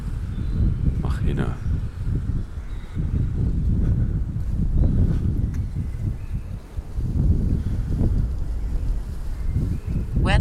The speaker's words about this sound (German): Da ist es Stand 6.30 Uhr mit einem Luftdruck von 987,2, Temperatur 5,2, Luftfeuchte 79, Niederschlag 0, Wind aus SW zwischen 40 und 56 und Windböen.